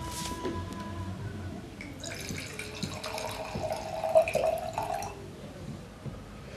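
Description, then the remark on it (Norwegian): White wine, Est Est Est, that came with a cantina, is poured from the cantina into a glass in one steady stream of about three seconds, a splashing gurgle whose tone rises as the glass fills, followed by a few faint drips. “sette litt lyd til hva det er for noe, ved å helle opp oppi et glass med noe drikke fra den nevnte kantina”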